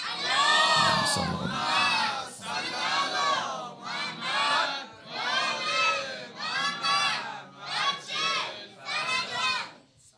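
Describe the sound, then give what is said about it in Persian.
A large crowd chants a salawat blessing loudly in unison, many voices rising together in repeated rhythmic phrases with brief pauses between them, a dense, echoing roar. “یه سلوات بلند بفرستید انشاءالله یه عیدی به توان سه از امام زمان بگیرید یه سلوات به توان سه بفرست”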